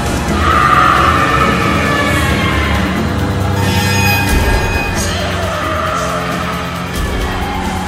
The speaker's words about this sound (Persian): ماشین با جیغ لاستیکا روی آسفالت سر خورد و چندین مرتبه دور خود چرخید و با شدت به جدول برخورد کرد